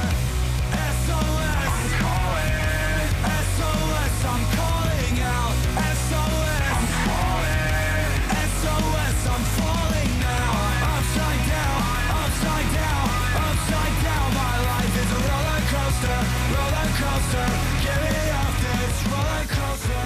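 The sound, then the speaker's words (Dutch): A loud pop-punk song plays continuously, with dense distorted guitars, heavy bass and pounding drums under a shouted, energetic lead vocal, steady and full throughout. “een pop-punk track opgenomen.”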